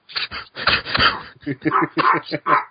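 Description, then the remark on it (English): A dog makes a rapid series of short yelping and whining noises in uneven bursts, heard over a Skype call, with what sounds like a person's voice mixed in early on. “no, it's because your dog kept hijacking you every time you tried to make him.”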